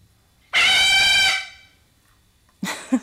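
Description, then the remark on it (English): A dog named Gideon lets out one very loud, piercing, shrill scream lasting about a second, tailing off sharply. After a short silence, a human voice briefly begins at the end. “The kids will interact with each other, and Gideon will scream as loud as she can over their heads.”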